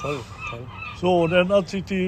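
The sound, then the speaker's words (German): Hungry seagulls cry out in a series of loud, harsh squawks, some overlapping in quick bursts, while a man briefly speaks alongside them. “Hören Sie die Möwen, die ja, haben ja, auch schon Hunger.”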